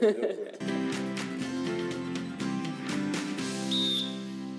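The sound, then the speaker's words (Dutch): A short, shrill coach's whistle blast near the end, blown during hockey, sounding over a steady bed of layered tonal background sound. “ik, vond het wel, ik vond zo'n mooie uit dat ik denk dat we hem tellen, ondanks de fluit.”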